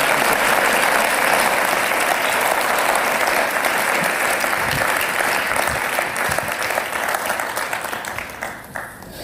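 Sustained audience applause for a speaker who has just shared his story, a dense steady wash of many hands clapping at full volume for several seconds, then tapering off toward the end.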